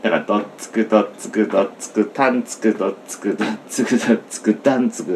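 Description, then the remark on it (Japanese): A voice beatboxes a kick-and-snare drum pattern, 'dottsuku dottsuku dottsuku taan', with quick, repeated percussive syllables in a steady groove, clear, continuing throughout, while explaining how to layer kick sounds in sampled material. “あと「ドッツクドッツクドッツクターン」でさっき重ね重ねたけどそのターンにキックの音も入ってるからそのターン入れたところはキックの音抜いちゃう”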